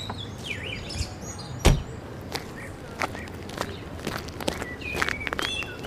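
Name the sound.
footsteps walking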